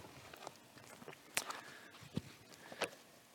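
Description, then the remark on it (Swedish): An audience in a church service rising to its feet together, in reverence for God's word, before the Gospel reading from Luke chapter 1: scattered shuffling, a few sharp creaks and knocks, and soft footstep-like movement spread over a few seconds, with no talking. “Jag tänker att i vördnad för Guds ord ska vi inte stå upp tillsammans och så läser vi och lyssnar till orden ifrån evangelisten Lukas i kapitel 1.”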